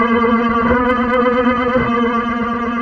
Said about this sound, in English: Um, so that is a long way of getting us to the segment that I've already said with cool vocal effects on my voice. So let's dig in properly to It came from the short box.